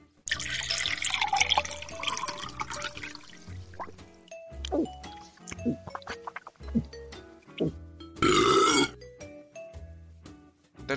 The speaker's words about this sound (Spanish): Y ya puestos, vamos a servirnos ahora mismo un generoso traguito de este maravilloso brebaje.